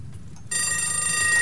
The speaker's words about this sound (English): can, you hear clocks? Can you hear ticking? What's going on here? Oh, the alarm bells have gone off. The alarm bells have gone off.